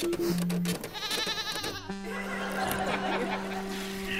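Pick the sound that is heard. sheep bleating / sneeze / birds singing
sheep bleating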